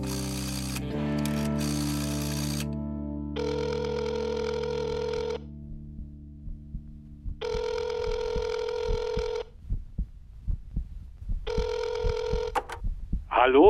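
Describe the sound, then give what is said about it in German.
A telephone rings three times, heard from a phone booth on a hot summer day, each ring a long buzzy trill of about two seconds separated by steady pauses, after a few brief clicks and a low hum at the start. “Und diesmal ließ ich es klingeln.”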